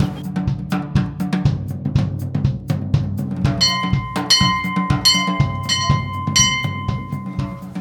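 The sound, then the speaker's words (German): A bell at a castle entrance is struck several times in quick succession, bright ringing tones overlapping and lingering, after a run of sharp knocking or clattering sounds with a low background rumble. “kann man klingeln, wenn man reinkommt.”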